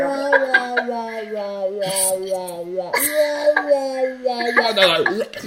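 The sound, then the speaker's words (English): A person's voice imitates a cat coughing up a hairball: strained, whining tones broken by a few harsh gagging hacks. Fairly loud, lasting about five seconds. “like hear that noise though, like that screeching, oh. dying dinosaur?”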